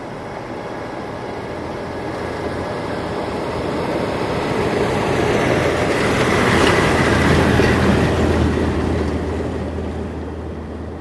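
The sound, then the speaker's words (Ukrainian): A car creeps slowly along a rough, broken village road, its engine rumble and tire noise building as it draws near, then fading slightly. Rattling clatter runs steadily underneath. “Час від часу по розбитій дорозі проїжджає автомобіль.”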